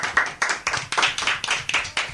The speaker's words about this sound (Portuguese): Uma salva de palmas de novo.